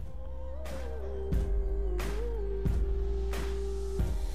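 A song plays loudly and steadily, with heavy bass, a sustained melodic line gliding up and down, and crisp percussive hits landing at regular intervals. No one talks over it.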